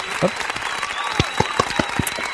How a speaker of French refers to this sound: Et euh, rien que pour ça, vous méritez tous des applaudissements. Voilà, je les balance tout de suite.